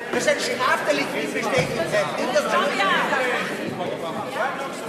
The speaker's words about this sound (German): Hören Sie mal auf die Rufe aus den Rängen. Der lauteste ist der spätere Nationalratspräsident Wolfgang Sobotka von der ÖVP.